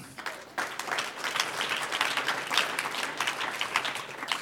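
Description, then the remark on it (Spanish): An audience breaks into sustained applause to the Lord during a church sermon, many hands clapping in a dense, steady wash of sharp crackling claps that rises quickly and holds at an even level throughout. “Un aplauso al Señor.”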